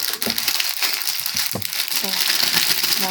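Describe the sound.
Crinkling of a plastic gummy bear bag, a steady bright rustle with sharp crackles running throughout, while voices talk underneath.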